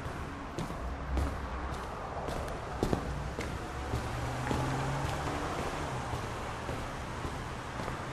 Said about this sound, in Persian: غرق در افکار و احساساتش شروع کرد به قدم زدن به سمت خونه و سعی می کرد خیلی پاهاش روی برگا نذاره